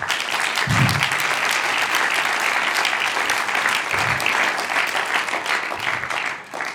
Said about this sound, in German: Wow, dann geben wir Gott Applaus für das.